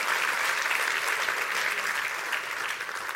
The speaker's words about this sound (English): Clap your hands and rejoice to that because it's real for us all today.